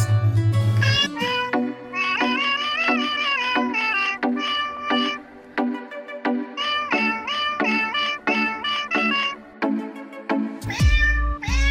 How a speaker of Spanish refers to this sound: Pero en este podcast somos muy considerados con los oyentes, así que después de darles una mala noticia, les traemos gatitos.